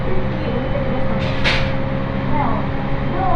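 Steady rumble inside a moving local train on the Tohoku Main Line in Japan, running downbound from Kogota toward Ichinoseki, with a brief hissing burst partway through and faint high squeals near the end.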